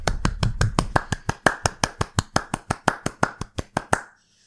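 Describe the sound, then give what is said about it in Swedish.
A short burst of steady, brisk hand clapping by two people, fairly loud, with about twenty sharp claps in an even rhythm that stop abruptly together as both stop at once. No one speaks. “Förlåt, men var det där totalt glasklart när vi liksom båda två slutade klappa direkt?”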